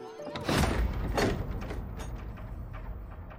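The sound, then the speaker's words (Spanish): A room door swings shut after two people walk through, with a pair of heavy, scraping clunks about half a second apart, followed by a low, steady rumble that slowly fades. No one speaks. “Al llegar al cuarto, Tojo abre la puerta, lo hace pasar al turco, luego pasa él y cierra.”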